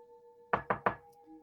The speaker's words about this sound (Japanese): ノックの音と男性の声がしました。